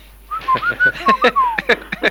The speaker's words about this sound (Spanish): Lo dicen en silbo.